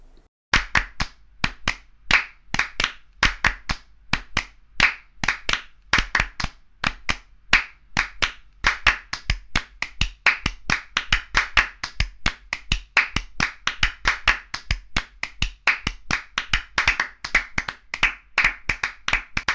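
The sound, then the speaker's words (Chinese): Sharp hand claps in a steady rhythmic pattern, at first in unison, then gradually drifting out of phase so the claps double up into a denser, shifting texture with no clear downbeat. This is a recording of the first three elements of Steve Reich's Clapping Music, demonstrating phase shifting. “什麼是相位移法 Phasing Shifting? 寫給拍手者的音樂？”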